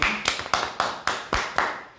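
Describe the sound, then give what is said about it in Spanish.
Seven crisp hand claps in a steady, even rhythm, roughly four per second, each a sharp loud smack with a short tail. No voices are heard. “Un aplauso, por favor, para”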